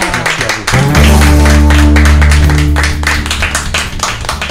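A crowd claps steadily for several seconds, dense and loud. A low, sustained musical tone hums underneath the applause for about two seconds before fading, and the clapping keeps going after it.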